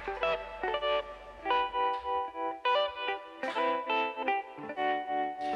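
A new-version cover of a classic soul song from the soundtrack of the film The Man with the Iron Fists, led by a chorus-drenched electric guitar playing ringing chords in a steady, repeating pulse, warm and moderately loud, with no voices present.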